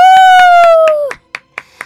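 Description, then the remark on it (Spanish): About eight sharp claps of applause, marking a community radio station's anniversary, land on a steady, even beat. A bright, sustained electronic tone rings over the first second, then cuts off, leaving the last few claps alone. “Gracias, gracias, gracias por esos aplausos.”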